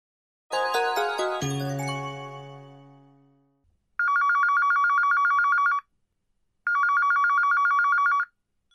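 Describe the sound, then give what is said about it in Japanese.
A bright chime rings out and slowly fades, followed by a telephone ringing with a call from a friend, in two steady, trilling bursts with a short pause between them. The ring is fairly loud, with no voices. “朋友打電話来。”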